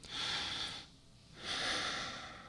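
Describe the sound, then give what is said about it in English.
A slow, deliberate breath: a long airy inhale through the nose, a short pause, then a long exhale out through the mouth, clear with no talking. “noticed that the breathing in through the mouth and out through the mouth is also fine, but uh, through the nose, through the mouth, and just kind of make a routine out of it, uh, kind of a ritual kind of deal just to get your mind off of things.”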